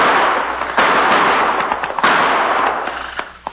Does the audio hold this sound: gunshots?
yes